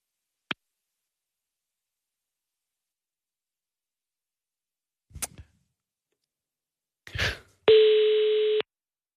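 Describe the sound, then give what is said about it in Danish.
A few sharp clicks and handset rustles, then one steady, loud electronic phone tone lasting about a second, the ringback heard while a call is redialled and connects. No one speaks. “Jeg øh, prøver lige en gang at ringe, ringe igen”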